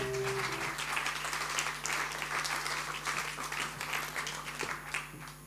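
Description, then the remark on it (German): An audience at a worship service applauds the band with steady, dense clapping that holds at an even level for several seconds, with a few voices faintly mixed in. “Hey, ihr dürft Platz nehmen und äh, Band Applaus geben.”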